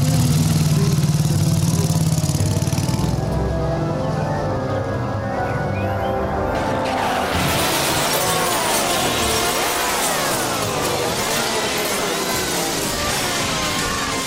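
A motorbike engine rumbles as the bike is driven into a greenhouse full of brass bands, then a loud crash of shattering glass gives way to a chaotic jumble of wavering, blaring brass notes that fills the rest of the sound.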